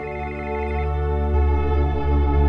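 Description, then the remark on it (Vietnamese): A phone rings with a sustained electronic ringtone, a loud, droning synthetic melody that shifts pitch a couple of times and plays steadily on its own, with no one talking. “Sau đó điện thoại của anh vang lên.”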